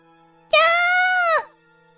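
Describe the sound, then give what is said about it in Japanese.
A single loud, high-pitched scream of fright rings out for about a second, holding steady before breaking off abruptly, with quiet before and after. “悲鳴を上げて座り込んだ私たち。”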